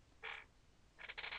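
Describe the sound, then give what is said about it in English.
A chair creaks twice: a short squeaky groan, then after a pause a longer, stuttering creak in a few quick pulses. Fairly quiet, with no talking. “That was my chair, not my butt.”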